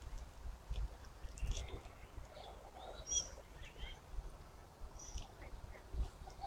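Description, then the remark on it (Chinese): A Eurasian blackbird sings in a dawn redwood grove during its courtship season, in short, scattered whistled phrases with some high chirpy notes, fairly faint over a steady low rumble of background noise. “听，这都是乌冬”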